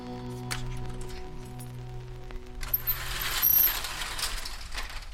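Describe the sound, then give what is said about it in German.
Metallic clicks and ratcheting clatter of a record shop's door being unlocked and rattled open by its owner around 11 on a Saturday morning in Würzburg city centre, with a steady low hum underneath and a brief rush of street noise toward the end. “Gegen 11 Uhr schließt Horst Friedrich seinen Plattenladen auf.”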